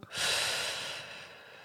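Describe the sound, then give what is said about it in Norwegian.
A long, deep breath drawn in, an airy rush lasting about a second before fading out, with no talking. “Og så må du ta inn luft på toppen”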